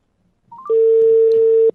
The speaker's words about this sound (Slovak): Eh, Takže mu vyťukáme číslo, neprezradím ho nahlas, aby ste mu potom nevolali. No, tak, už mu telefonujeme, pozrieme, či nás počuje. Tak, už vytáčame.